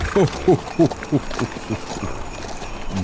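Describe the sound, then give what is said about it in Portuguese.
Reindeer hooves clip-clop in a quick, steady rhythm, about five distinct beats, then soften and trail off into a low background rumble. “Na verdade, não são cavalos, são renas. E este é o barulho que as renas fazem.”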